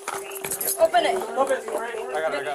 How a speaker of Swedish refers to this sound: Killen som var blå i hyn och livlös när familjen hittade honom ger nu gnyende ljud ifrån sig.